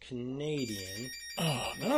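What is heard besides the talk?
phone ringing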